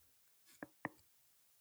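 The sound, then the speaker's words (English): Two quick clicks from a person's jaw joint, a fraction of a second apart, crisp against near silence with no talking; the clicking is caused by a roundhouse kick to the face. “You're not kidding. That's real. Every day all day clicking because of a roundhouse kick.”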